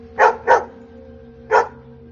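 A dog barks twice in quick succession, then once more after a short pause. The barks are clear over a faint, steady low hum.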